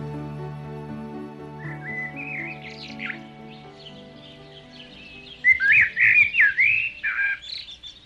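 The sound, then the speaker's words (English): Several birds chirp and tweet over a steady low hum, starting sparse and soft, then swelling into a louder, busy cluster of overlapping calls near the end. “all of the birds gathered around to talk about the party.”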